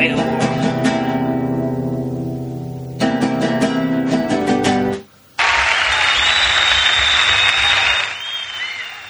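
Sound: audience applause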